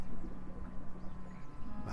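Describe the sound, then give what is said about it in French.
Water laps gently and unevenly against a boat's hull with the boat's engine cut, in the pays d'Anceny, soft slaps rising and falling over a low, steady background hum. “Alors là on entend quoi Un peu des oiseaux, puis l'eau, l'eau qui tape contre la côte du bateau”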